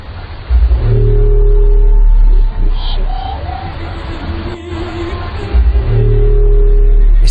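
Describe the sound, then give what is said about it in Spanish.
An underwater recording from Challenger Deep, at the southern end of the Mariana Trench, about 10,994 metres deep: a loud, continuous low rumble with steady droning tones layered over it, swelling and easing slightly, with no voices. “sonido fue grabado en el abismo Challenger, en el lugar más profundo del planeta, en el extremo sur de la fosa de las Marianas.”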